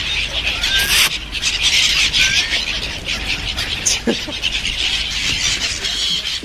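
Gulls and swans at a lake squabbling noisily as they try to eat tourists' bread, a steady tangle of shrill squeals and screeches overlapping throughout, with a few sharper cries cutting through the constant clamor.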